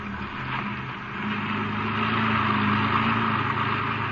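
A car engine drones steadily while driving over rough ground, a low rumbling hum under broad rattly noise that swells slightly partway through, with no voices.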